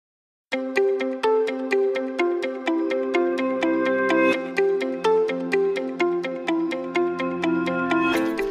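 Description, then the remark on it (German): A bright instrumental tune of plucked, bell-like notes plays in a steady, bouncy rhythm with a sustained bass underneath, loud, with no one talking: the closing outro music. “Ja, da klingt sie wieder, die mittlerweile fast schon legendäre Outro-Musik.”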